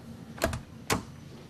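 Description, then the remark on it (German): Three sharp knocks at the cab of a crane, two in quick succession and then a third after a brief pause, each a short, crisp rap with no voices in between. “Ich klopf mal an.”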